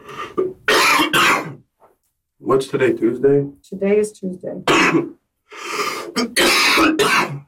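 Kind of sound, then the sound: human body sound, coughing fit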